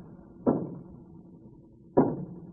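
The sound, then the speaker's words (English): Two dull knocks on a door, about a second and a half apart, each a short low thud that fades quickly, with no voices. “That's a knock, all right.”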